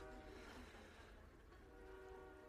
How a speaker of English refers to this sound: I know that train's loud. Don't you love the train? I mean, God bless it.